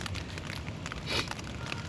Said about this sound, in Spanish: Y como pueden escuchar en la grabación, pues está lloviendo, ¿no? Nada más que no le puede caer agua al micrófono, so pues tiene un paraguas encima.